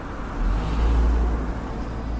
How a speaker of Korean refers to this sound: 한밤중에 운전 한 여자가 어느 폭풍우 몰아치는 밤 혼자 자동차를 운전하며 외딴 도로를 달리고 있었다.